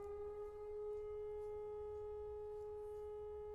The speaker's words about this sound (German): Geht bei dir gerade Fliegeralarm im Hintergrund los? Ja. Äh, Sirenenalarm. Da haben wir jetzt nicht mit gerechnet.